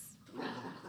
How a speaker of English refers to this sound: it's I'm sorry, y'all. Um, that's my dog in the back.